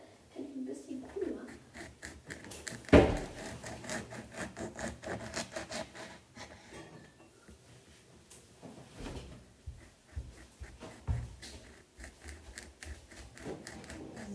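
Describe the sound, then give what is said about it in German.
Someone rummages through a cupboard looking for drinking glasses to pour lemonade into, shifting items with steady scraping, rubbing and light clattering, broken by one sharp, loud knock early on, then quieter shuffling and a few more bumps. “Ähm, ich schau mal, ob wir noch das eine Glas offen haben, weil”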